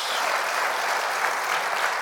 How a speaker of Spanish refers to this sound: Ya se lo dimos a los padres, pero vamos a darle un fuerte aplauso a nuestro Padre Celestial, que ha sido bueno, ha sido fiel con nosotros.